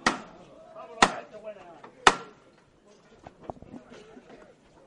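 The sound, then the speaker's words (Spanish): Three loud, evenly spaced metallic raps from a procession knocker struck to call the costaleros (bearers) of a halted 'misterio' float, about a second apart, each ringing briefly, followed by a murmur of voices and scattered softer sounds. “llama a sus costaleros”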